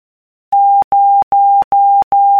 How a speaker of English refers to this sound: Zero. Zero. Zero. Morse code.